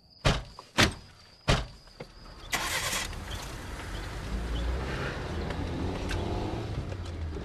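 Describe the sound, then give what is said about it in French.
Several car doors thump shut in quick succession as girls get into the car, then an engine cranks to life and settles into a steady low rumble. “Allez les filles, montez dans la voiture, on va chercher Fred.”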